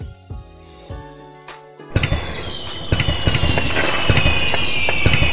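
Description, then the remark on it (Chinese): Fireworks set off across the Han River late at night at New Year go off in a rapid string of sharp pops and crackles, starting with a few separate bangs and then building into a dense, continuous barrage with a faint high whistle running through it. “江对岸有人放起了烟花，打破了原本的宁静。”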